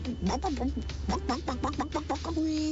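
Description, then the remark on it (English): A mother imitates a chicken clucking when asked what the chicken says: a quick run of about a dozen short, bouncy syllables, fairly loud, ending in a longer drawn-out note. “Mama, what does the chicken say?”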